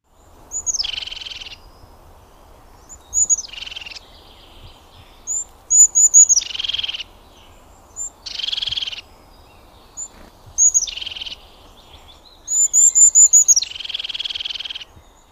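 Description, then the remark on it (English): A crested tit repeats a soft, bubbly trilling call about six times in short, regular bursts, with faint background hiss between phrases and no voices. “The crested tit's call is somewhat soft and bubbly trill that, when repeated, becomes the bird's song.”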